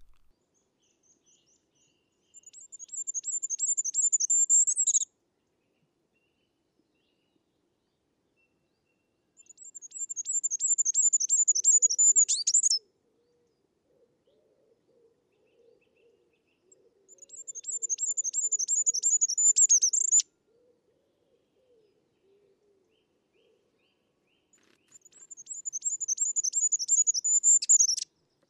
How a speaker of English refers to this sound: goldcrest call is a gentle trail of notes that sounds like it sings Figaro, Figaro, Figaro over and over, increasing in volume throughout. It's very high pitched